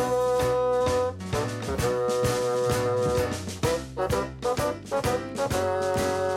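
An instrumental rock intro plays loud and close, with steady drum hits driving a full band of sustained guitar and keyboard chords; no one sings or speaks.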